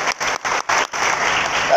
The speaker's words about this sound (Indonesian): Ayo kita berikan tepuk tangan lebih semangat lagi bagi Tuhan.